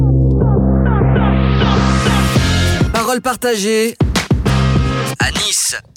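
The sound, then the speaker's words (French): A loud, punchy jingle for the radio show Parole partagée à Nice: a rising synth sweep builds over pulsing bass and layered music, then a voice speaks a short tagline over the bright, dense mix. “J'espère que le son n'est pas trop fort dans vos casques parce que ça envoie hein, quand même.”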